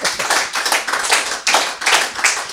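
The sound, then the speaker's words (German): An audience claps steadily, many hands producing a dense, bright patter with slight swells in loudness, fairly loud and with no voices on top. “Könnt ihr könnt jetzt klatschen, das ist schön, das ist, das ist schlimm.”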